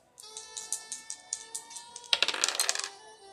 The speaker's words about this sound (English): Let's go ahead and roll the dice and find out what's hiding below the surface.